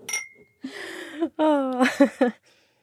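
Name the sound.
wine glasses clinking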